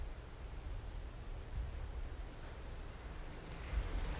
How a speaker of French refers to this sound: Et de là, s'il n'y a pas trop de vent, on va au port. On entend évidemment le bruit de la mer.